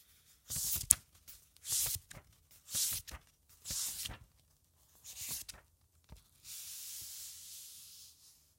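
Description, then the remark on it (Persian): A pen scratches across the paper of a pocket notebook in short, brisk strokes, about five quick bursts followed by a longer continuous scribble, fairly quiet with no talking. “و این صدای نوشتن داخل یکی از دفترهای جیبه”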